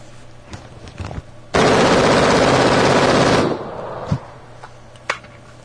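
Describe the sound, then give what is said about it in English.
A smoking machine gun with a hot gas block fires one sustained automatic burst of about two seconds, a loud, rapid, unbroken rattle of shots, ejecting brass casings. Before and after it come a few sharp metallic clanks and thumps over quiet background. “the gun's smoking. Gas block is getting hot”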